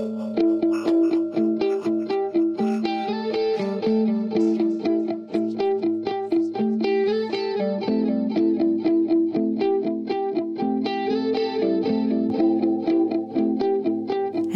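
A dense instrumental rock piece with layered, effects-heavy guitars sustaining bright chords over a steady pulse, loud and continuous throughout with no voices.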